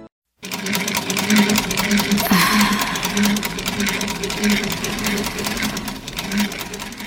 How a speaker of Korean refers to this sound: 이제 재봉틀로 박음질하고 이음 부분을 안쪽에서 다림질해주면 완성된다.